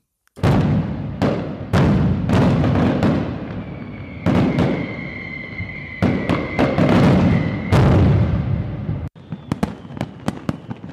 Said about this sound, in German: Ich zünde mal ein Feuerwerk für dich an, wie du gerade gehört hast.